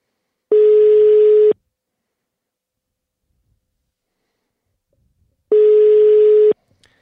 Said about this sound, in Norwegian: Ikke foreløpig. Satser på at han plukker opp i røret snart.